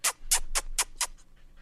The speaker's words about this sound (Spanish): Oye, el, show, perro, está haciendo un perro, señores. Oigan eso, el primer show de la tarde que un perro es mi compañero. Oigan eso.